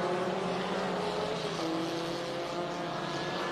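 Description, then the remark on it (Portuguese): A loud racing engine roars steadily for a few seconds, its pitch dropping midway as the car passes by on the track, with no voices. It is Caio Lacerda's race car during a race stage. “Vai rendendo bem aí o carro do Caio Lacerda nessa etapa.”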